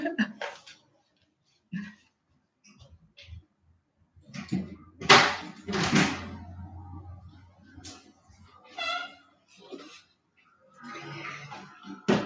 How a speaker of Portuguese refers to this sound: Ai, gente, vou precisar abrir a porta